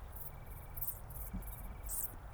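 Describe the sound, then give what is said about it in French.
Wingless bush crickets (decticelles) chirp at nightfall in short, high, sizzling bursts repeating every half second or so, against a steady low roar of very strong wind sweeping the Plateau de Cervelle, 1200 m up in the Drôme, France, on 24 August 2018, heard from under a Scots pine. No one speaks. “Observation sonore - Decticelles dans le vent”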